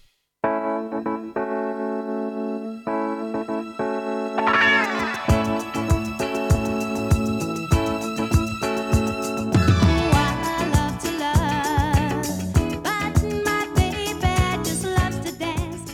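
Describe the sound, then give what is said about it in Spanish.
A music track plays steadily with sustained harmonic tones at first, then fuller instrumentation joins around five seconds with a regular beat and bright high layers, continuing at an even, fairly loud level. “Nos vamos a ir a escuchar un tema y ya, ya, ya volvemos.”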